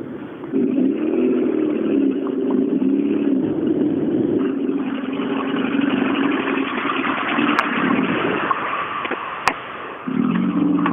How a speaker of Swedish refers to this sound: Nej, bilen har ju inte gått eh, bra. Nej, det låter lite kämpigt för bilen. Ja, det har blivit värre och värre.